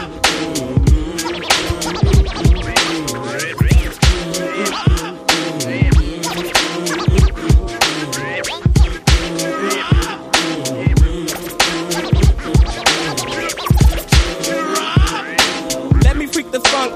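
A hip-hop song intro plays loud and up front, a steady punchy drum beat under layered music with turntable-style scratching and no vocals yet.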